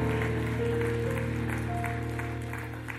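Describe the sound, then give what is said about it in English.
A church audience applauds together as a clap offering to God during a worship service, in a dense, steady wash of clapping, with sustained keyboard or organ chords underneath, tapering slightly toward the end. “Let's appreciate our God with a clap offering.”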